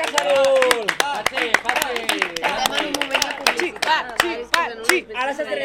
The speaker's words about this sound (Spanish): Eh, hemos venido aquí 25 personas, que somos como 45, y la verdad que felicitamos a Cachanun, un gran aplaudiment.